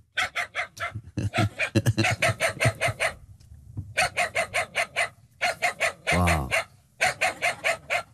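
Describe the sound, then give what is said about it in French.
Rapid strings of yappy barks from Funky, the cartoon dog in Boule et Bill voiced by Manu Payet, loud, come in quick rhythmic bursts separated by short pauses, with a brief laugh and a spoken word near the end. “Euh, bah, funky, c'est le chien que vous avez doublé dans, dans Boule et Bill, sa réponse”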